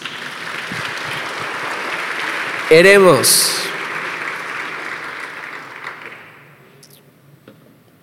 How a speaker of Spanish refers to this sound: Date un aplauso por eso.